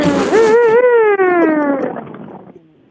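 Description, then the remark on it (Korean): A voice imitates a car engine starting and revving: a sustained buzzing, harmonic-rich drone that wavers in pitch, rises slightly, then slowly falls and fades away. “다시 한 번만. 시동 거는 것부터, 예.”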